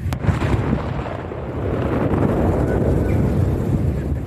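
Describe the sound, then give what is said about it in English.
A volcanic eruption explosion heard on an island in Fiji, over 250 miles from the volcano: a sharp crack right at the start, then a deep, sustained rumble rolling on under heavy wind buffeting, with no clear voices. “So that's what it sounded like on an island in Fiji that's over 250 miles away from the volcano.”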